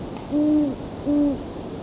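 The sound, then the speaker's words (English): Two drawn-out, low owl hoots from a male and female pair, evenly spaced about a second apart, clear against a soft background hiss with no talking. “Well, it's both male and female here.”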